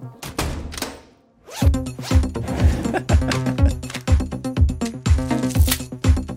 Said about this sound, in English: okay, when the beat drops, there's this kind of door close, lock, and then a zipper sound as Angela closes the door unlocks it and begins to zip up her costume. And it lines up with the music, it almost becomes like percussion elements.